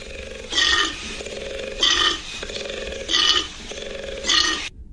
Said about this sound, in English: A koala bear, what it actually sounds like.